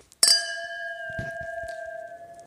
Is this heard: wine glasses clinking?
yes